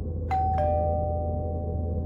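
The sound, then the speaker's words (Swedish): A man rings the doorbell of an apartment door: two bright chimes in quick succession, a higher tone followed by a slightly lower one, the second note ringing out and sustaining over a low steady hum. “Mannen som åkt upp till Koros våning med vapnet i sin hand ringer på dörren.”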